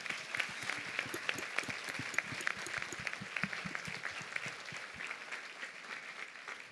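An audience gives itself a round of applause at the preacher's request, a dense stream of many overlapping claps that holds at a fairly even level for several seconds, tapering slightly toward the end with no talking over it.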